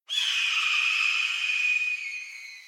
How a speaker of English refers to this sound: and hears a red-tailed hawk screech.